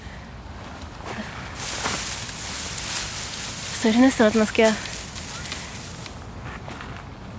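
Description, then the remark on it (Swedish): Bamboo stalks and leaves rustle as people standing under them shake them, a dry, hissing swish that swells for a couple of seconds, then a person speaks briefly over the fading rustle. “Vad står vi under nu för någonting? Det är ju en massa bambu.”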